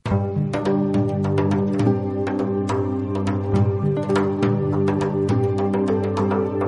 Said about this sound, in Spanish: en un espacio informativo que no es de crítica literaria, que nació en el año 1993 y que ya supera las mil emisiones y cuya careta de presentación suena así.